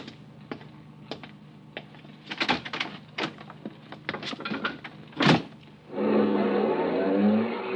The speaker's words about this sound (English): I went down and stood in front of the Northern Hotel. Five minutes passed, ten minutes. And then a car drove up. Two men in the front seat, three in the back.